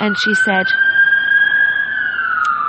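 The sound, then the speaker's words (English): A steady, wailing emergency siren sounds loudly outside throughout, its pitch dipping slightly near the end as it passes, while a person speaks briefly at the start. “excuse the siren.”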